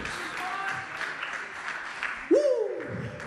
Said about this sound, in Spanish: Muchas gracias. Un aplauso para nuestro amigo Pasto. Un aplauso para Pasto, que ya vuelve con nosotros.